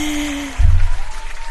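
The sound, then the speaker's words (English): A short burst of applause-like clapping for the brand of the week, Twitter, starts abruptly after a faint tonal hum and continues as a steady, fairly loud patter, with no voices. “And now for your brand of the week, can I have a clap, clap for this one?”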